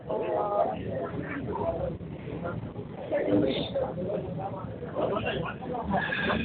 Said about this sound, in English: I'm in a Mexican restaurant right now. So if you hear noise in the background, that's what it is